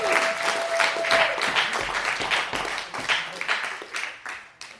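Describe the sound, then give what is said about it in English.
An audience breaks into steady applause, many hands clapping in a dense, continuous patter that stays loud for several seconds before gradually thinning out at the end. “Everybody give a round of applause to our reader of the story.”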